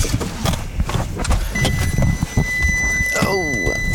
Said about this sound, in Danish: Øj, den ruller. Bilen ruller. Stop bilen på søren der.